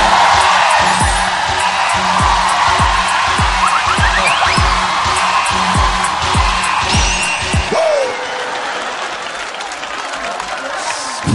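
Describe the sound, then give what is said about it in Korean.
A studio audience applauds loudly and continuously, with scattered whoops and cheers rising over the clapping, plus a rhythmic low thumping underneath; the ovation eases somewhat toward the end. “아, 그래도 진짜 박수가 많이 나오고, 어, 좋네요.”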